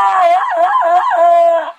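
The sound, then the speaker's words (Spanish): A loud ape-man jungle yell: one sustained warbling cry that yodels up and down in pitch for nearly two seconds, then cuts off, with no talking over it. “Ella está por eh, quedarse con los derechos del grito de el hombre mono, mejor conocido ah.”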